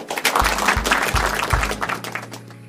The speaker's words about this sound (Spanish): Dale un aplauso fuerte al Rey.